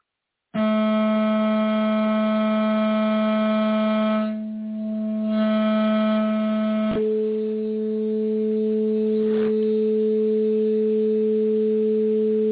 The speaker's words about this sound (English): that sounds like a repeat of the sequence. Okay, that sounds like it could be Jimmy's eight tones. That might be the eight tones.